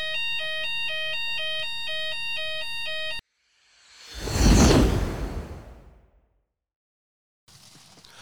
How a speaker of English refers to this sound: We're back. Obviously, you know, we had that little fire alarm there, but let's get back into it, innit?